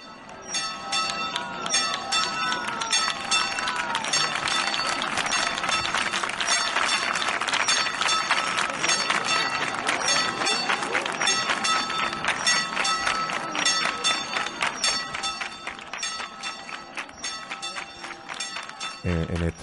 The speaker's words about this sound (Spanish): Vamos a escuchar un poco de esa llegada de la Virgen del Rocío a la Casa de Hermandad de la filial del Cordón Morado